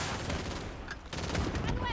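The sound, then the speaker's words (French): Rapid bursts of video game gunfire crackle continuously with booming explosions, dense and loud throughout, with a voice faintly mixed in beneath the combat noise. “Le jour, la nuit, les explosions. On va essayer te faire péter ça là-bas.”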